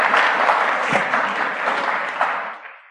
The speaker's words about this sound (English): Give him a round of applause. Give him round of applause.